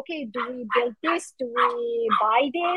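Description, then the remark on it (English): A dog barks repeatedly in short, excited bursts underneath a person talking steadily, mixed in with the speech rather than standing out on its own. “sorry my dog is going crazy”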